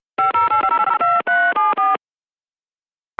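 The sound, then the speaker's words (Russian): A quick run of about a dozen electronic touch-tone beeps as a phone number in Moscow is dialed, clear, with short gaps between tones, then silence and a brief faint blip at the end. “Времени остается всего лишь на один звонок, последний звонок. И звонить мы будем в Москву”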